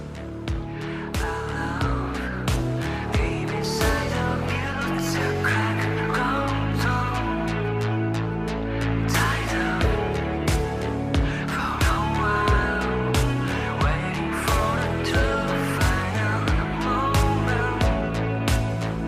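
A recorded music track plays steadily and loudly throughout, with layered sustained chords over a regular, driving percussive beat and no vocals or talking.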